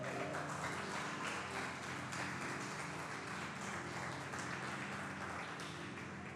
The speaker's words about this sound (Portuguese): Vamos aplaudir ao Senhor, queridos, porque Ele é bom.